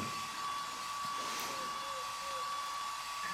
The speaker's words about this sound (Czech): Schovej se za ten fén. To je při mých rozměrech opravdu těžký. Vybíral jsem opravdu velký fén.